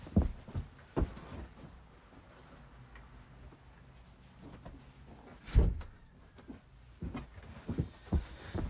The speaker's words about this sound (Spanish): Tenía que, tenía que, cerrar mi puerta porque como hay mucho viento ahorita, hay mucho viento y, las puertas se abre, se cierra